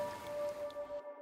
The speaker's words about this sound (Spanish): estaba lloviendo y se oía la lluvia, se oía caer de forma súper nítida